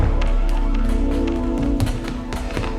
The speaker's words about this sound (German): Der zweite Detektiv machte auf dem Absatz kehrt und rannte hinaus. Tür zu und nichts wie weg hier.